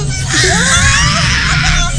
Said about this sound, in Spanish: No grites.